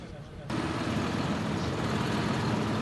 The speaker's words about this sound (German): 11 Uhr, Abfahrt Richtung B1. Rund 70 Traktoren rollen los in Ostön.